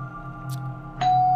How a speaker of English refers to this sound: But as the person rang my doorbell, the porch light flickered once twice and suddenly turned off.